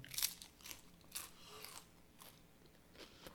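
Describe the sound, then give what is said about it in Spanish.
Someone chews and crunches food, with about seven crisp, crackly bites at an uneven pace. The first is the loudest, and the later crunches come softer. No one speaks. “Así que yo dije, nada, este es el momento, voy a comer más lejos del micrófono.”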